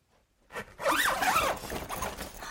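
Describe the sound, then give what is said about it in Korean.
A zipper on a vinyl wardrobe is drawn open in one long pull as a woman opens it to get inside, its rasping buzz rising and falling in pitch over about two seconds, with a short tug just before and no voices. “손바닥만한 방에 몸을 숨길 만한 데는 없었지만 여자는 스스로 숨을 곳을 찾아 비닐 옷장을 열고 안으로 들어갔다.”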